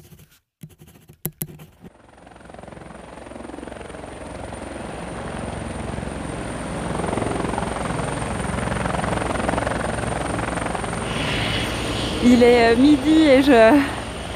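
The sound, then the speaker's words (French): A hospital helicopter passes overhead, its steady rotor roar swelling louder over several seconds, with a rising turbine whine near the end. A person speaks briefly at the start. “Oui, c'est un des bruits de l'hôpital, c'est euh, l'hélicoptère.”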